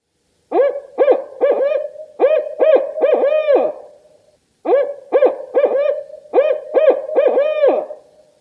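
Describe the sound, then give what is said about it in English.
A barred owl gives its rhythmic eight-note hooting call twice, loudly, with a short pause between phrases; each series ends in a drawn-out, descending hoot. “They have what is it? An eight note call, and it is "Who cooks for you? Who cooks for you?"”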